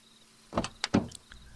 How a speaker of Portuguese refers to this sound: Ouço a porta do carro bater e o som dos passos se aproximando.